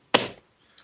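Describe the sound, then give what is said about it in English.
A single solid thud as a small copy of a book is plopped down onto a desk, fairly loud with a short dull decay, then a faint light tap afterward. No talking. “I like to call it the plop sound.”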